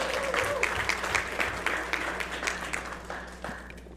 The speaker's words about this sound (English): And so on January 19th, 2020, we are actually going to go to three services here at The Journey. Next, there you go. You can clap for that.